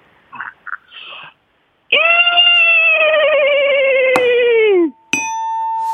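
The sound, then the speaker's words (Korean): A person imitates a horse's neigh: a few short breathy noises, then one long, loud, quavering whinny of about three seconds that cuts off abruptly, followed by a faint steady tone. “울부짖는 말소리. 예, 청자 여러분들 좀 긴장하시고 한번 들어봐 주시기 바랍니다.”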